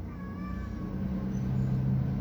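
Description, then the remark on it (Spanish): A cat meows in a drawn-out, wavering cry that holds steady for a couple of seconds, fairly faint, with no one talking over it. “Se escucha un gato, eh.”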